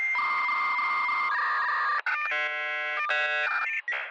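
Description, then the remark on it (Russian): A dial-up modem handshake over a telephone line plays alone: steady high tones shift abruptly into harsh, buzzing multi-tone screeches and hissing bursts, loud for about four seconds. “Помните, у нас давным-давно, когда вот только начинался интернет, мы по, по телефонным кабелям на нем сидели. Ну да. Помните, это самое это звук?”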